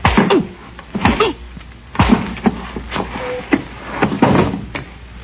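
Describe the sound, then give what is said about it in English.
Several dull, heavy thuds land at uneven intervals, blows striking someone on the back of the head from behind, each a short loud whack with a brief rumble after. “I didn't even have a chance to see who hit me.”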